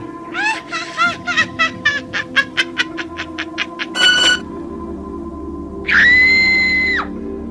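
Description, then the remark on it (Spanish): A rapid run of shrill, wavering cries gives way to a single long, piercing, harrowing scream from a woman in the distance before dawn, held for about a second over a low, steady hum, with no talking. “Era de madrugada cuando algo me despertó y sentí a la distancia el grito más desgarrador, el aullido de una mujer.”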